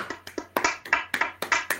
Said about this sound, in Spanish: Aplausos.